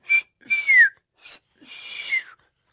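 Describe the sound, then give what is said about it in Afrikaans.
Someone whistles to call birds: four short, breathy notes, two of them sliding downward in pitch, with brief pauses between. The whistling is moderately loud, and no one speaks. “… dit reg gekry het om te fluit”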